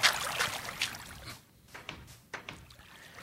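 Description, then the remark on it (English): A series of wooden clacks and creaks as a fence gate in a video game swings open and shut, with a bright burst at the start and several sharp knocks spaced out afterward, moderately loud. “and then if you just like any other door, right? Ah, very cool. Makes a lot of racket too.”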